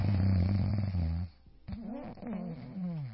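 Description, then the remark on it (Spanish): A person imitates snoring with their voice, making a long, rough, rattling snore followed by a short pause and then two more drawn-out, wavering snoring sounds, loud. “Así ronco ya.”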